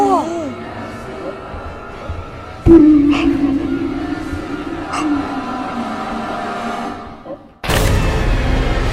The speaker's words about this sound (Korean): 그 울음소리가 들리더니 어?